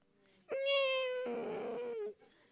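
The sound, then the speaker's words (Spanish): A voice imitates a mosquito's whine with a single steady, buzzy, nasal tone held for under two seconds, fairly loud, turning slightly rougher before it cuts off. “Porque a veces usted está por ahí y le cantan una melodía al oído.”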